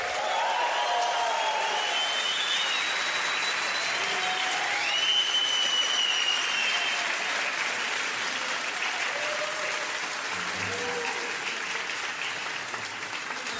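Sustained audience applause fills the whole stretch, a dense, steady wash of clapping from a large crowd with a few faint whistles and cheers rising above it.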